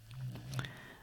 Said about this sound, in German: Ah, ja, wenn du hier gerade so ein Schnarchen gehört hast, ähm, das ist mein Hund, äh, die unter meinem Schreibtischstuhl sitzt und äh, es sich gut gehen lässt.